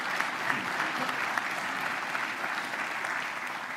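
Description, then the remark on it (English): Steady applause from a sizable audience at a morning MTSU university event, applauding the university's First Lady, a dense wash of many hands clapping at once, sustained at even volume throughout with no voices standing out. “Let's give her a round of applause.”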